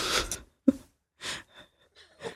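A sneeze: a sharp, sudden burst with a short voiced catch, among several other brief, breathy, hissing exhalations spaced across a couple of seconds, with no talking.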